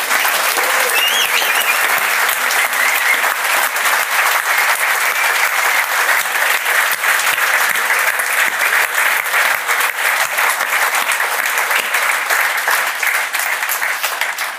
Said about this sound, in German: Du hast deinen Applaus schon gekriegt. Ich denke, einen kleinen haben wir auch noch für Steffen Baumgart, oder?